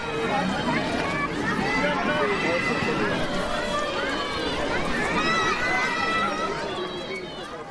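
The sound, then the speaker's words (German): A crowd of children calling and shouting excitedly as they wait for a St. Martin's procession to begin, calling out for Martin, many overlapping high voices in a continuous loud babble that fills the whole stretch, with no single voice standing out. “Und da hört man jetzt wenn ihr genau hinhört, liebe Kinder, wie die Kinder dies erwarten, bis es losgeht, wie die nach dem Martin rufen.”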